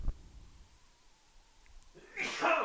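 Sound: sneeze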